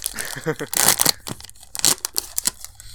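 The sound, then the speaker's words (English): Crisp tearing and crinkling of a trading card booster pack's foil wrapper being ripped open, with a sustained rip followed by several sharp crackles and rustles; no clear talking over it. “I do love opening packs, but here, isn't that a great sound?”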